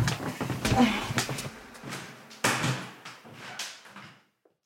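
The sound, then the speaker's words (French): A faulty door of an apartment on Avenue de Flandre in Paris is handled and pushed shut, with a rattle and a firm knock of the latch partway through, while people shift about and murmur. “J'étais pas sûre, j'avais laissé la porte parce que j'ai un souci avec la porte.”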